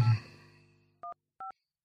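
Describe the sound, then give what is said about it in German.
Two short electronic keypad tones beep one after another as a landline number is dialed on a telephone, each a clean dual-pitched touch-tone, following a fading resonant knock that rings out at the start. “Ich habe jetzt eine Festnetznummer. Hoffentlich muss ich da jetzt nicht durch die Telefonzentrale durch.”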